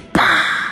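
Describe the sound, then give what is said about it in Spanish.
A voice imitates a kicked ball slamming into an electrical box on a light pole at a school: one abrupt, loud plosive hit, followed by a sustained, breathy ringing tone that fades slowly. “Y el hueta culiao, o sea, yo, eh, le pegué un pencazo ahí como, como despeje, Y no me di cuenta que estaba la caja ahí. ¡Oh! Y suena así,”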